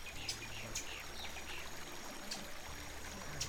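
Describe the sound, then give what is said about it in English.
A brook flows with a steady, soft babbling rush below Overtoun Bridge in a wooded ravine, and a few brief, high chirps from local birds up above sound faintly over the water. “Crossing Overtoun Bridge, dogs would also hear a cacophony of sounds the local birds up above, the leaves of the trees rustling, and the brook flowing below.”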